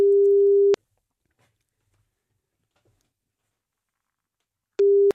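A steady tone of an outgoing phone call rings once, then a long silent gap follows before the ring tone starts again near the end, clear with no voices.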